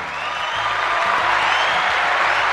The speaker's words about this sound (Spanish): Quiero mencionar a el eh, Juanero Bernie Williams. Por favor, un aplauso al señor.